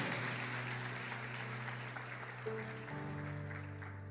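An audience applauds the Lord steadily for about four seconds, a dense wash of clapping from many hands, with sustained keyboard or organ chords holding underneath and shifting near the end.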